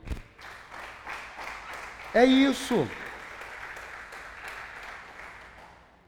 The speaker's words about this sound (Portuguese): Dá um aplauso aí.